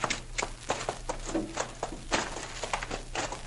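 Two horses, Maud and Bess, stamping and clip-clopping their hooves, a quick, irregular series of sharp knocks, with a low steady hum underneath and no voices.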